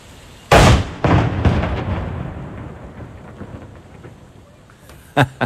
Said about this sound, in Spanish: El cañonazo del Cerro Santa Lucía. Es muy bueno el recorrido que hace el sonido.